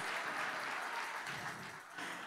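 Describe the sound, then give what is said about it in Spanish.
A crowd claps steadily as applause to the Lord, a dense wash of many hands with no clear individual beats, staying loud and even throughout before dipping briefly near the end. “Y si le vas a dar al Señor un aplauso, oh my God.”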